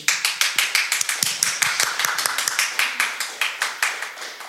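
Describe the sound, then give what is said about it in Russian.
An audience applauding a duet, the clapping falling into a steady, quick rhythm of sharp claps that continues throughout at a fairly even loudness, with no voices. “А вот теперь аплодисменты дуэту.”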